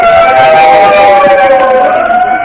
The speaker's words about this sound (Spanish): De manera inmediata, las alarmas de la Brigada Loyola se hacen oír a las 16 horas con 15 minutos.